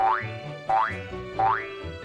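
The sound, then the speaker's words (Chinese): Three springy cartoon boings in a steady rhythm, each a quick rising twang that wobbles upward in pitch, clear and fairly loud with no talking, as friends bounce around on a soft cloud. “朋友们全部都跑到了云上，他们到处蹦蹦跳跳，还不断地爆出笑声。”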